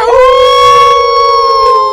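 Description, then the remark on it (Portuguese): A sustained, steady howl rings out loudly for about two seconds, a group of people howling together on a count of three, imitating a wolf rather than a real animal, holding one pitch with rich overtones. “Vou contar até três e vamos todo mundo uivar, hein?”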